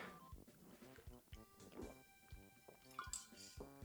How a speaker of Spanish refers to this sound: Ahora una pequeña pausa para tomar agua, porque si me da sed, amigos, la verdad.